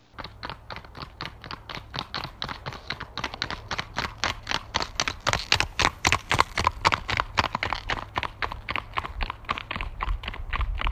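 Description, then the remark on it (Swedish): Horse hooves in a tölt gait, a quick, even four-beat clatter of hoofbeats repeating steadily and fairly loud throughout, with no voices. “Och det kan man också lyssna på när man rider. Man kan höra det på takten. Och det har vi spelat in så här.”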